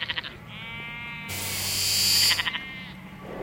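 animal, sheep bleating

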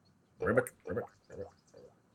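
animal, frog croaking

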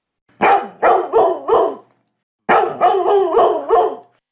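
animal, dog barking

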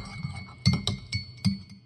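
household object, cups clinking

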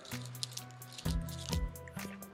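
food or drink, sipping water

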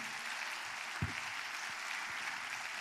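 crowd, audience applauding

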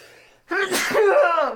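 human body sound, sneeze

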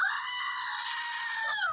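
animal, screaming goat

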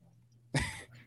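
human body sound, cough and throat clearing

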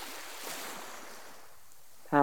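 nature, ocean waves

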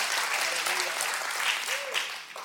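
crowd, audience clapping hands

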